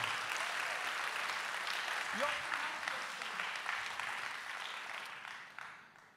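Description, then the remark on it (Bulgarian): A church audience applauding steadily in thanks to God, a dense wash of many hands clapping at once that holds fairly loud and even for about six seconds before easing slightly at the end, with a brief voice or shout in the middle. “О, хайде, ако ръкопляскаш, ръкопляскай, като че си благодарен на Бог за пробуждане.”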